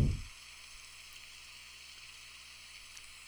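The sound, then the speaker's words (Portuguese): Steady, even rainfall hisses continuously at a soft, moderate level, a constant wash of fine droplets with no voices, after a brief low thump at the very start. “É como se tivesse um som de fundo muito relaxante, um barulho de uma chuva.”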